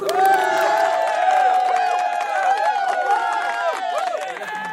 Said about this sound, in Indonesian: Kasih tepuk tangan lu buat Rido kali ya.